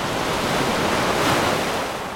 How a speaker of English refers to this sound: A storm hit Koh Samui. A big storm, and with it, waves. Big waves. Finally, some waves on Koh Samui.